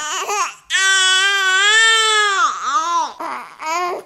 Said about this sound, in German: Ein Baby weint. Es will trinken. Jetzt, sofort. Aber es muss warten. Der Blutzuckerspiegel fällt, Stresshormone fluten, das Kind schreit sich in Rage.